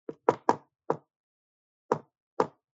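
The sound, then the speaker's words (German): Six sharp knocks tapped out in the shave-and-a-haircut rhythm: a quick cluster of four, a pause, then two final raps. Crisp and alone, with no talking. “Das heißt, Shave in the Haircut, Two Bites.”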